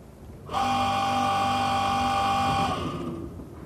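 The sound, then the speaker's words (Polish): A tower clock's hand-moving mechanism whirs into motion, a steady motorized hum with a tonal drone lasting about two seconds before winding down and fading, with no talking. “To był dźwięk przestawiającej się wskazówki zegara.”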